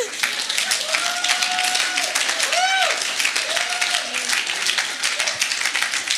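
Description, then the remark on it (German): Steady audience clapping fills the whole stretch, a dense wash of many hands, with a few excited voices calling out over it. “Und ich möchte, ja, ihr dürft auch eben klatschen, wenn ihr wollt.”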